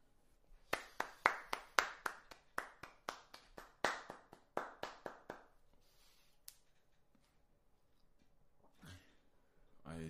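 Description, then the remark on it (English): A fast run of about fifteen sharp, loud hand claps in a quick steady rhythm, slowing briefly before stopping, followed by a lone clap and a short murmur of voice. “clapping y'all ear like that. I do apologize. I didn't realize how loud that was.”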